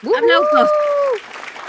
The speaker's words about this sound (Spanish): Más aplausos. Los aplausos gratis.